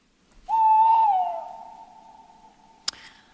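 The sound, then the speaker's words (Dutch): At sunrise on the Veluwe in the Netherlands, an owl gives one long, drawn-out hoot that starts strong and slowly fades over a couple of seconds, ending with a brief sharp click. No one speaks. “Nu hoor je alleen de uil.”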